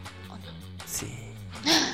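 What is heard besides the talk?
sneeze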